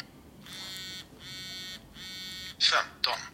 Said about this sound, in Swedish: Och då ställer man in den här så att du har långa och korta vibrationer som avger huruvida det då det är timmar, minuter.